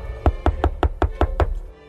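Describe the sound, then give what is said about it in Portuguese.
Seven quick, evenly spaced, solid knocks on a door in a steady rhythm with no voices, then a brief quiet tail. “Deixa eu bater aqui na porta.”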